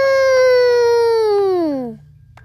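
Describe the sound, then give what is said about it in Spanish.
A storyteller imitates a cow's moo: one long, loud voiced tone lasting about two seconds, with a pitch that slides steadily downward before it cuts off. “Cuando llegó a la pradera, se encontró con unas vacas ¡Mu! ¡Mu! ¡Mu!”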